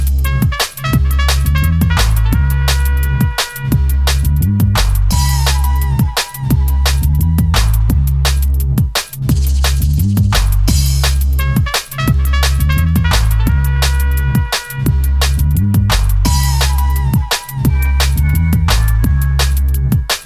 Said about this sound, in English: Classic drum and bass track.